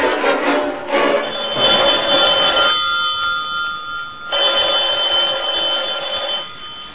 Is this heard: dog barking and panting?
no